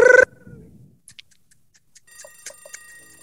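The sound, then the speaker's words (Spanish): A loud, brief alarm clock ring bursts out at the start, then fades. Quiet ticking follows, and a layered ringing of several clocks builds up toward the end. “¿Y qué es lo que viene? La alarma del reloj.”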